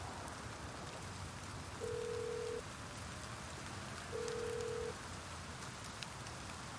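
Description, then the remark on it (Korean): A phone ringback tone sounds twice, each steady electronic burr lasting under a second with a pause between, over a constant hiss of rain in the background. “다시 전화를 걸었다.”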